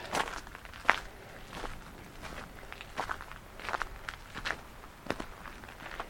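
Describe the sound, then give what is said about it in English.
Steady footsteps walking outdoors at Cemlyn, toward Cemlyn Bay, at an even pace, each step a soft, crunchy scuff repeating about once or twice a second, with no voices over them. “I'm just walking into the sun to see a bay.”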